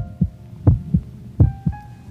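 A heartbeat sound effect: deep, muffled lub-dub thumps in steady pairs, about three beats, close and prominent over a faint sustained hum, with no voices.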